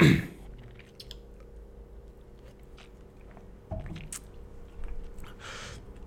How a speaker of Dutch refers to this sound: Ik neem nog een slokje water.